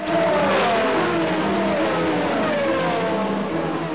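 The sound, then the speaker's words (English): Loud, continuous roar of racing car engines revving and accelerating as the field charges up a hill through the streets of an old town, with rising and falling harmonic whines layered over each other as several cars push hard. “Vibrations and bursts of engine and throttle shake the foundations of the centuries old structures.”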